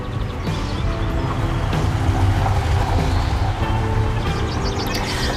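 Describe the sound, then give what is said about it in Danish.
A large car driven by craftsmen travels along a small gravel road between summer houses, its steady low engine rumble mixed with a broad gritty hiss that swells slightly midway, with no voices. “På de små grusveje mellem sommerhusene ræser der håndværkere rundt i store biler.”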